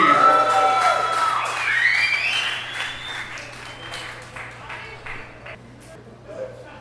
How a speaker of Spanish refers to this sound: No sé si les puedo pedir un aplauso, piden un aplauso por favor.